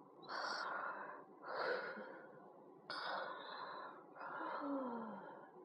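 Rhythmic snoring from the story character Louis as he walks along a cobblestone street: four long, raspy breaths in a steady cycle, each a noisy, wheezy rush with a hissy edge, fairly loud and with no talking.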